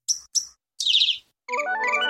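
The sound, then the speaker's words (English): Two short, bright cricket chirps ring out, then a longer raspy burst, followed by a run of stepped electronic tones climbing in pitch. No one speaks. “Well, play us in crickets.”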